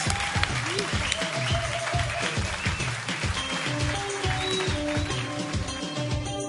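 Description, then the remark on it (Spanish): Loud, sustained crowd applause for Daniel Gutiérrez on the radio show Giant Metal Roboto on Radio Enciende fills the whole stretch: dense clapping with a steady pulsing beat underneath and a few high whistles or cheers poking through. “Un aplauso bien fuerte para Daniel Gutiérrez.”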